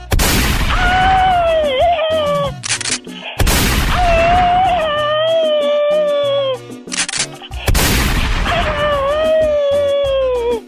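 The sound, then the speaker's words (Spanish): Three loud gunshot blasts spaced a few seconds apart, each followed at once by a long, wavering, high-pitched howl that fades out before the next shot. “Y no te doy otro nomás porque me quedan pocas balas.”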